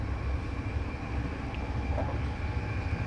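A train rolls steadily along the rails with a continuous low rumble and a dense, even roar, loud throughout without pauses or voices.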